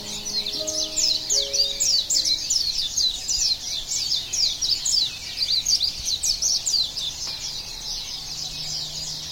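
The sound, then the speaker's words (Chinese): A dense chorus of high, rapid chirps and trills from birds and insects in a forest fills the air continuously, bright and steady, with a few soft lower tones underneath and no one talking. “静静的聆听森林中的虫鸣鸟叫”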